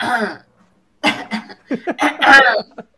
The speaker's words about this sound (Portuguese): Quando a gente fecha a porta do estúdio de gravação, eu fico com um pigarro. Eu não fumo. Eu nunca, mano, eu nunca dou uma tossida na minha vida.